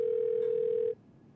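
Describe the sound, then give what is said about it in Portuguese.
A steady telephone dial tone of an outgoing call to Microsoft CEO Nadella hums loud and clear for about a second, then cuts off abruptly, leaving only faint background noise. “Então ele pega o telefone e liga para Nadella, o CEO da Microsoft.”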